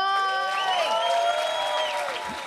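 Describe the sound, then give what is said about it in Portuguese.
A round of applause from a small group for the speaker's mother as she receives presents, steady clapping for a couple of seconds, with several voices cheering and calling out excitedly over it. “Gente, uma salva de palmas pra minha mãe.”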